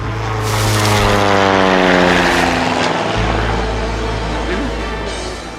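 A low propeller plane roars loudly overhead, its engine drone swelling and then slowly fading as it passes, with a falling pitch sweep and a deep rumble underneath.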